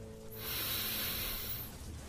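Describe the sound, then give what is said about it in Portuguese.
A single deep breath drawn in through the nose during a breathing exercise, a soft, airy hiss that swells and fades over about a second and a half, quiet, with no talking. “Inspire fundo pelo nariz”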